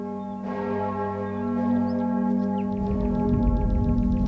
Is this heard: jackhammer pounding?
no